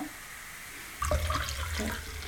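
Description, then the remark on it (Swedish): Wine is poured into a glass as a refill, starting after a second of quiet as a steady, splashy gurgle with a faint ringing pitch that shifts as the glass fills. “Nu kommer vinpåfyllning här.”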